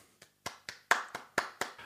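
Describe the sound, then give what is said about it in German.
A short burst of hand clapping: about eight crisp, distinct claps in a fairly steady rhythm, moderately loud, like a small round of applause, with no talking. “Vielleicht eine Pause für einen kleinen Applaus.”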